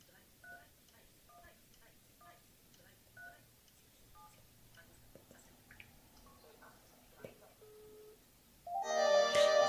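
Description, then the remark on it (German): A call is placed from a mobile phone to a Panasonic telephone: a quick series of short two-tone keypad beeps in an uneven rhythm, followed by a louder burst of electronic ringing or chiming at the end. “So, ich rufe mich jetzt vom Handy aus an.”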